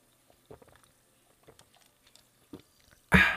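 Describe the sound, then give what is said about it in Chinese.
HEB sparkling water with lemon added fizzes with faint, irregular crackles and tiny pops, then a sudden loud, broad rushing hiss bursts in at the very end as it is poured. “哦，听这个气泡水的声音，就大概就知道，哎，这个 HEB 的这个气泡水又回来了，真的是比较。”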